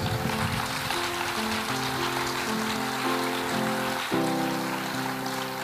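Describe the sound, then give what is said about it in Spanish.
A church audience applauds for Jesus in a dense, steady wash of clapping that lasts the whole stretch, with sustained keyboard chords shifting underneath and a slight swell near the end. “Denle el aplauso a Jesús, hermanos.”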